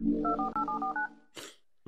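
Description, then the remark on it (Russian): A quick run of about six telephone keypad dialing tones, clear, beeping in rapid succession over a low background hum as a phone number is dialed. A brief breathy sound and the start of a voice follow. “вы должны в эфире слышать звук. Звоню, звоню, собственно, на этот номер.”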